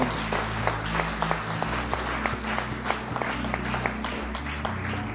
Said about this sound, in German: Hey, lasst uns mal allen Leuten fetten Applaus geben, die dieses Gebet gesprochen haben.